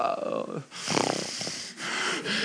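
Heavy, wheezing breaths, loud, in three long raspy pulls with brief pauses between them, strained and noisy with a rough whistling edge.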